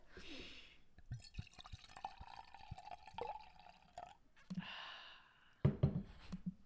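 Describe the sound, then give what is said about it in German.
A drink is topped up, liquid pouring into a glass for a few seconds, gurgling and dripping with small clinks, followed by a breathy burst and a short vocal sound at the end. “Hast du jetzt nachgeschenkt oder nicht?”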